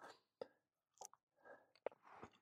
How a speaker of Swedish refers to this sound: Jag ska bara tugga ut. Ja, fan jävligt god bulle i alla fall.